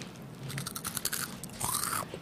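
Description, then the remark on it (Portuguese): Crunchy Cheetos cheese puffs being chewed close to a microphone, a quick run of crisp, crackly bites with brief scraping sounds, fairly quiet and with no talking. “aqui, come um aí pra você perto do microfone.”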